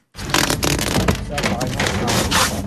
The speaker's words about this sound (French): Le bruit que vous entendez, c'est une affiche retirée